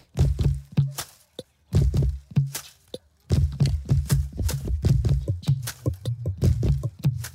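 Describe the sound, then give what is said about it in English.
Rhythmic wooden knocking and scraping as tree branches are struck and bowed, forming a steady groove of sharp hits with brief pauses, fairly loud, no voices. “I can also play them with two bows.”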